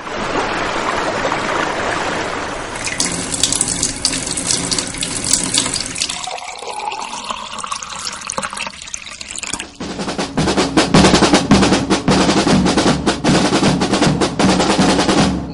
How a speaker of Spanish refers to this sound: El agua fluye e influye hay que lucharla, si no disminuye.